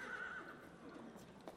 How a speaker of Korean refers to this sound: 한 쌍의 말이 딸깍거리며 빠르게 지나가는 일요일 오후만 되면